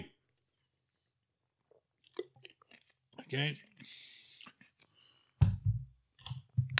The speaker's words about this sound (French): I'll drink to that, mais j'ai plus de bière. Une gorgée d'eau.